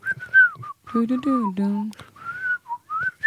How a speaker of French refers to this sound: Je pense que c'est samplé de Robin des Bois. Euh, tu sais, le, premier Robin des Bois de Disney. Et c'est un type qui siffle